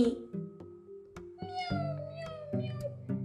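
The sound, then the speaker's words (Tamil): A kitten mews several times in quick succession, high and thin, over a low steady background hum with a few sharp taps. “பூனைக்குட்டி பார்த்துருக்கியா அப்படின்னு குரு கேட்குறாரு அந்த பையன்கிட்ட”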